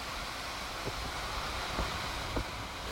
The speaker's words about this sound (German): Wenn Martin Reiter das Fenster zur Straße öffnet, dann klingt es, als würden die Lkw bei ihm durchs Wohnzimmer donnern.